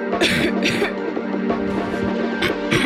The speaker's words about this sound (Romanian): Tuse.